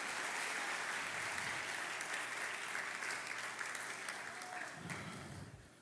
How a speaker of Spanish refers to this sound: ¿Alguien puede darle un aplauso esta tarde al Señor?